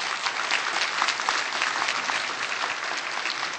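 Steady applause from a church audience for the choir's music leaders, a dense patter of many hands clapping at an even, sustained level throughout, with no voices rising above it.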